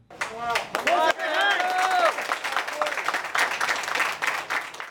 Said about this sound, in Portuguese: Um dos policiais resgatados foi aplaudido ao chegar do hospital.